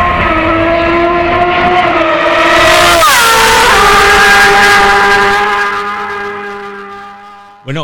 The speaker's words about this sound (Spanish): cuando pasa por delante del micro esta Ducati, yo creo que alguno cuando esté escuchando el podcast se va a cagar en nuestras muelas por el ruido que hace y cómo distorsiona.